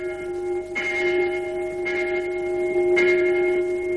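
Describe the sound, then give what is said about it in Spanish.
A large plantation bell rings steadily at nightfall to mark the end of the workday, struck three times about a second apart, each clang blooming over a continuous resonant hum that never fades between strokes. No one speaks. “En la plantación suena la campana de fin de jornada.”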